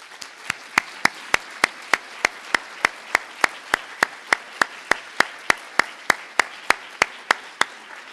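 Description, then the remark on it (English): Audience applause at the School of Education for two professors seated in the front row, in a steady, even rhythm: sharp, bright claps land about three times a second over a low murmur of background noise, continuing unbroken with no talking. “They're sitting right up here in the front row, and I think they have put themselves on the line we all owe them a big round of applause.”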